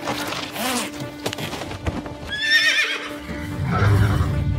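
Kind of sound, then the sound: animal, horse neighing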